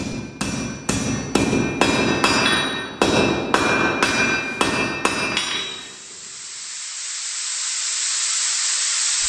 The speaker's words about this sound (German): Der Dampf steigt hoch und verdichtet sich. Ist es Nebel?